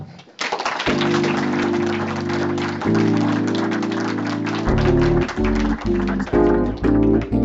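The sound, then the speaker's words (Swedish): An audience applauds steadily to thank two debaters, a dense wash of many hands clapping that runs throughout, soon joined by loud music with sustained chords playing over the clapping. “Då kan vi fortsätta diskussionen där eftersom vi nu måste tacka de här två kombatanterna eh, så mycket med en stor applåd.”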